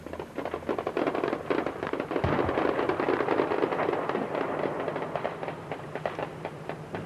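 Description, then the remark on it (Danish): Dense, overlapping gunshots crackle almost nonstop for several seconds in a combat zone as small groups of soldiers attacking Serb positions are shot one by one, a loud, chaotic barrage of sharp reports with no voices. “så en masse små øh, grupper forsøge at angribe øh, serberne på den anden side, som så blev skudt en efter en.”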